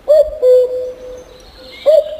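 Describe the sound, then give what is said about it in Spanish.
A common cuckoo calls its clear, hollow two-note cu-coo, the first note short and the second held, then starts again, loud with no one talking. “quería decir cuco quería decir cucú, pero ha dicho el cucú”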